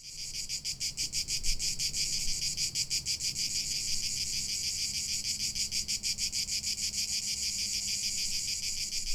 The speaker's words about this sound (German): Interessant ist, dass das Zirpen der Zikaden nicht so laut und dominant wirkt, wenn man vor Ort ist, als wenn man es auf einer Aufnahme hört.